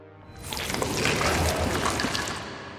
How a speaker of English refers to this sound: you kind of like sputtering a bit because you're in this, uh, this stream this water's flowing at you as you're you're once more back in the okay area.